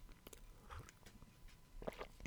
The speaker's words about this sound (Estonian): rüüpan vett ka vahepeal.